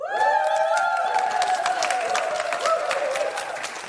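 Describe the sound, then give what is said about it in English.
A small audience applauding and cheering steadily, dense hand claps with whoops and a sustained high cheer riding over the top, loud throughout. “They're really punching above their weight when it comes to making a noise.”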